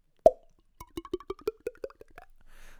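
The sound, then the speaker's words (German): A sharp mouth pop mimicking a wine bottle being uncorked, followed by a quick run of about ten rhythmic glugging mouth sounds like pouring a glass of wine, ending in a soft hiss; made entirely with the mouth, not a sound effect; clear, no talk. “übrigens kein Soundeffekt, wir haben hier keine MPC stehen, das, das ist mein Mund.”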